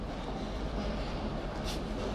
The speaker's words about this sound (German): weil es, seit wir angekommen sind, belebt es sich enorm. Es ist ein Zug eingefahren. Es sind 150 Prozent mehr Leute jetzt hier drin.